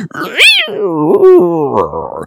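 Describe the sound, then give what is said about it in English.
A voice imitates the squealing brakes of a car slammed on at the last minute, with a loud, strained squeal that rises sharply, dips, then drags on in a wavering whine for about two seconds. “But what about the person behind you who slams on the brake at the last minute and goes,”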